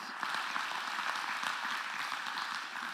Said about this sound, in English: Can we give God a round of applause for people leveraging their lives?